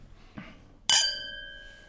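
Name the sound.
wine glasses clinking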